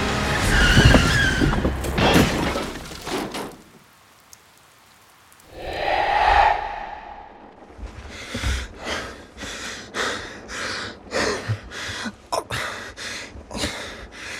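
A loud burst of noisy rumbling gives way after a brief silence to a rising tonal screech of a car's tyres skidding under hard braking as it heads toward a town sign, followed by a rapid series of rhythmic thumping bursts.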